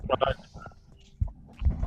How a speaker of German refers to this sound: ich habe irgendein Handy stört. Ich habe da ein ganz komisches Rückkopplungsding.